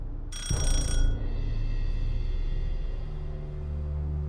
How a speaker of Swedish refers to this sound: Nu ringer en ung stilig man vid namn Manny Guerin på dörren.